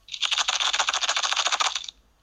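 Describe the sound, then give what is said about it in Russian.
Dry pasta rattles inside an empty plastic Kinder egg capsule used as a homemade shaker for a children's musical game, in a quick burst of about two seconds, a dense run of bright, clicking hits with a steady shaking rhythm, no voices. “это звук макарон.”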